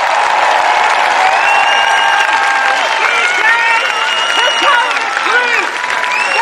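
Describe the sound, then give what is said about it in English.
A large protest crowd applauds loudly and steadily, with a dense wash of clapping mixed with shouting and cheering voices throughout. “give her a massive round of applause”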